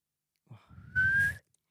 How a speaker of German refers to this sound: Ich habe oh. gepfiffen.